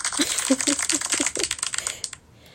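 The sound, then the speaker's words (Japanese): A quick run of hand claps, roughly a dozen sharp, crisp slaps in a fast, steady rhythm lasting about two seconds, then stopping abruptly. No one speaks. “誕生日なので奮発して拍手を2回しました”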